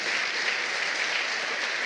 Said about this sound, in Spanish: Y si lo crees, dale un fuerte, pero bien fuerte aplauso al Señor.